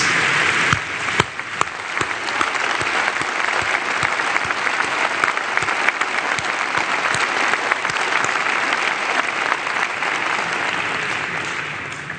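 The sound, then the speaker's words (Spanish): Sustained audience applause in tribute to Mexico's migrants, a dense steady wash of many hands clapping with scattered sharper claps, holding at an even loudness for about twelve seconds before tapering slightly at the end. “Un aplauso a nuestros migrantes.”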